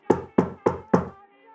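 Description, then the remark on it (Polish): Four firm, evenly spaced knocks on a door, fairly loud, each with a short hollow ring, followed by quiet; an unannounced visit early in the morning, a little after seven o'clock. “Przed godziną, około godzin, po, po godzinie siódmej trochę, słyszysz pukanie do drzwi.”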